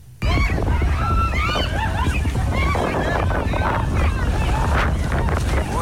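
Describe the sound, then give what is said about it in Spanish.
Powerful tornado-like wind roars and buffets the microphone nonstop, a heavy low rumble with gusty bursts, while several people shout and talk excitedly underneath, at the Mata de Palma photovoltaic project on the way from Santo Domingo toward Monte Plata. “eso fue hace un rato, parece como si se fuera a formar un tornado Ahí todo el mundo salió corriendo.”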